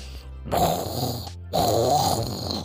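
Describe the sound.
A voice imitates a tiger's growl in two loud, rough, rumbling bursts, each about a second long, with a short pause between them and no speech.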